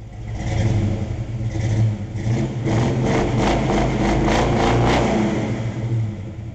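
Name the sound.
car engine revving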